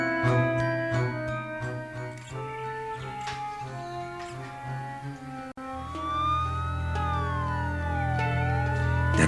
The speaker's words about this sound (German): Ja, ja, ja, ja, ja, der Krankenwagen kommt.